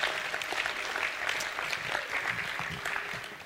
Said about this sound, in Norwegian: Ja, vi kan gjerne gi litt uh, klapp eh, til Gud.